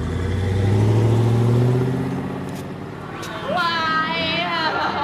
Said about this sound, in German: Gute 100 Meter entfernt entdeckt er dann doch das Auto. Er legt einen Sprint zum Auto hin, steigt ein und die beiden Männer rauschen davon.